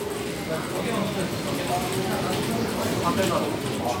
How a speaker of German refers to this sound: Anders als an einem üblichen Café hört man hier also weniger Gerede, sondern vor allem das Klicken und Klackern von Tastaturen und Mäusen äh, von diesen vielen Rechnern, die hier nebeneinander stehen.